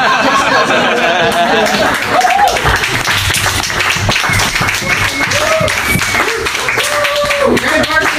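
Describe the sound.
A crowd claps and applauds loudly and steadily throughout, a dense wash of hand claps, while a man's voice speaks over it.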